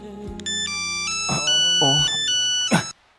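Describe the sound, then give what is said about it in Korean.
A phone rings with an incoming call while a man carries bottled water jugs up a staircase on a delivery, an electronic melodic ringtone with sustained bright tones stepping up and down in pitch for about three seconds, with a few soft thumps and rustles underneath. “한참 생수통을 지고 계단을 오르는데 걸려온 전화.”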